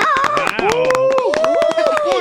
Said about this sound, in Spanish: Eh, buenísima ah, buenísima idea. Aplaudan.